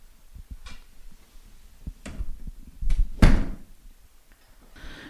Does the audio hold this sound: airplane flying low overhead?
no